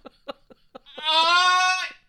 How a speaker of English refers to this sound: goat, fucking goat